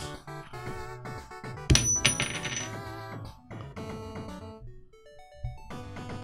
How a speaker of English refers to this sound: Do you want me to flip the doubloon?